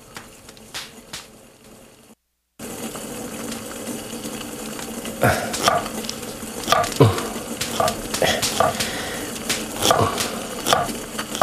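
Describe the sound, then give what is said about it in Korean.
Irregular knife chops land on a cutting board while someone cooks as snow falls, with quick taps and sharper thuds scattered over a steady low hum. A short silence comes first, then the chopping continues without any talking. “보기보다 칼질을 예쁘게 잘하네요.”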